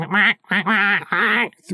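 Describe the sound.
A person imitates a spectral goose with three loud, nasal honks in quick succession, and a fourth honk starts just as the sound cuts off.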